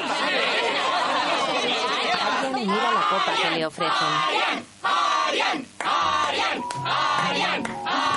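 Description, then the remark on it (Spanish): At a New Year's Eve party on 31 December, people enter an office. A dense crowd of overlapping voices chatters loudly and continuously, with occasional shouts and brief laughter rising above the party hubbub, dipping only for a few short moments. “Se abre la puerta del despacho y entra gente.”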